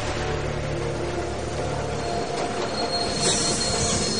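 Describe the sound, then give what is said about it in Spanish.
A train rolls steadily along the rails parallel to a river, with a dense, continuous rumble and grinding, a low hum fading partway through and a high metallic wheel squeal rising near the end. “El tren avanza por las vías en paralelo al río.”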